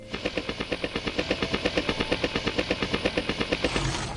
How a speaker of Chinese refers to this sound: 他们两个一夜没睡，第二天一早，他们把羊抱到田野上，接着回去开来拖拉机。